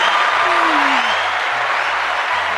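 Dense, steady audience applause fills the whole stretch, a loud continuous wash of clapping with no talking over it.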